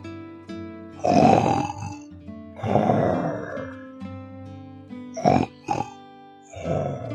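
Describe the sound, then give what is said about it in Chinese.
A voice imitates a little bear's loud snoring in a children's story, with rough, rumbling grunts: two long snores, then two short snorts and a final snore, over a faint steady background tone. “邦尼一咕噜爬起来，但其实呢，这是小熊在打呼噜呢。”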